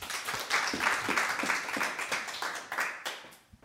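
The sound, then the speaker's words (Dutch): A crowd applauds writer Erik-Jan Harmens before he reads, with dense, crackling claps that hold steady, then thin out and fade toward the end. No one speaks over it. “Mag ik een applaus voor Erik-Jan Harmens.”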